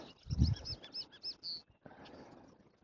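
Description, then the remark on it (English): Several male bobolinks perched on posts sing outdoors: a rapid, bubbling jumble of high chirps and warbles, fairly clear, with a low thump of wind or handling early on and soft background noise throughout. “the most close birds to me are, are uh, there are several bobolinks, male bobolinks that are singing stand they're uh, perched on on posts and singing i assume their mating calls or whatever their call is”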